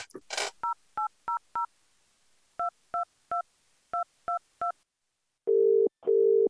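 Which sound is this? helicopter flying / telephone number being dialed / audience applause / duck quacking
telephone number being dialed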